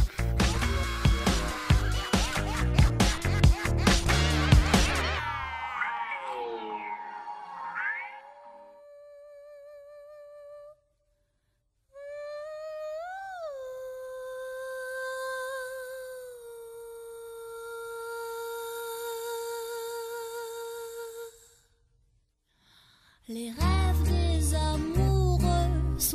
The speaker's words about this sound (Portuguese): Então, o que você quiser saber aí, continue ouvindo e sobe a vinheta.